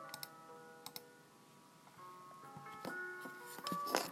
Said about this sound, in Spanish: Mientras, vamos a dar la oportunidad de ir escuchando una linda melodía que nos va a ayudar en este proceso de visualización.